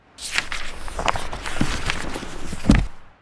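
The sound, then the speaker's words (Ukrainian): Footsteps walk steadily across the market square in Hlukhiv, paced by Narbut in costume, a handful of distinct treads at a moderate pace, with a firmer step near the end and no voices. “На другий день той самий майдан міряв кроками уже не Анігін, а англійський мандрівник по Сахарі чи Єгипту, сліпучи білім вбранні з білим шкіряним шоломом на голові.”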